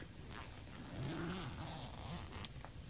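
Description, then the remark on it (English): A tent door zipper slowly unzips about six inches in a drawn-out, faintly ratcheting rasp with a couple of sharper clicks, quiet, over a low droning tone underneath. “So the zipper moves about six inches slowly.”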